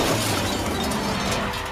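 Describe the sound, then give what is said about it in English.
A loud car crash with glass shattering as a speeding car has an accident, a dense burst of breaking and scattering debris that stays strong for just under two seconds, with no voices. “and gets gets into a car accident.”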